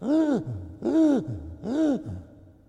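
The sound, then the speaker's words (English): A voice imitates the strained, wheezy breathing of a two-year-old child with croup: three harsh, rising-and-falling gasping inhales, each followed by a low rasping breath, evenly spaced. “What croup, croup is? It's like when they have difficulty breathing, and this is how it sounds, okay?”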